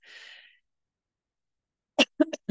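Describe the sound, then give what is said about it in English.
A sharp in-breath, then a moment of silence before three quick, harsh coughs in close succession, with no talking, from a person who has a bit of a cold. “sorry i have a bit of a cold um, so if I start coughing and spluttering through this, and because this podcast is living imperfectly, it's rough and ready, no editing in this.”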